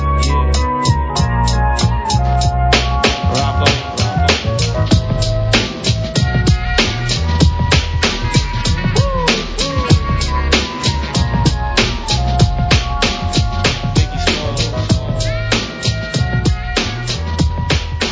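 A hip-hop track plays loud, with a steady, punchy drum beat and deep bass looping continuously and evenly throughout.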